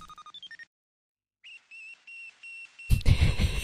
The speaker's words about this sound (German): sagen wir mal, etwas simpler. Ja, ja, es ist ziemlich ein, ein, eintönig. One Note, genau. Und ähm, ich glaube, ich hätte Schwierigkeiten gehabt, ein noch mehr One-Notiges Geräusch zu finden von einer Sonde.